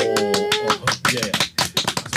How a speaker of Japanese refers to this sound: 拍手をさ強要されても本当に叩いていいものかどうかわかんない